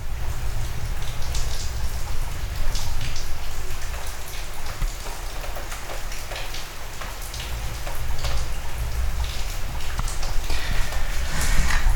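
Steady, heavy rain from a thunderstorm hisses without a break, with scattered sharper drops pattering and tapping on a surface over a constant low rumble. No voices are heard.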